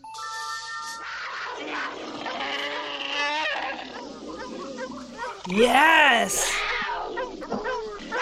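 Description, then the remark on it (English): Loud, wavering animal-like cries, bleating and yelping sounds rising and falling in quick succession, from a film sex scene, with a brief spoken word near the start and a noisy, crowded background throughout. “There's uh-huh. like animal sounds.”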